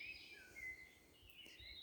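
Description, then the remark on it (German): Faint birdsong drifts through a quiet forest among green trees, thin high chirps and trills of singing birds rising and falling over a soft low ambient rumble, with no voices. “dem ich umgeben bin von Grün aller Facetten, von Bäumen, von Vögeln, die ihren ja, ihr Lied zwitschern, du wirst es hören.”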